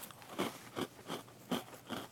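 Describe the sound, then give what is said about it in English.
Crisp crunching of a crunchy pumpkin spice cookie with a graham cracker taste being bitten and chewed, five sharp bursts in a steady rhythm at moderate loudness, with no talking. “Mm-hmm crunchy, cookie, graham crackery taste, some pumpkin spice in there.”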